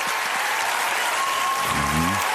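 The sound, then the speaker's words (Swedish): A large audience at the TV show Idol gives a standing ovation, applauding continuously in a dense, steady, loud wash of clapping, with a single voice calling out over it near the end. “Stående Fan ovation.”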